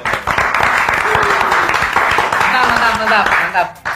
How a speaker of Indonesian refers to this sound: Gokil, tepuk tangan.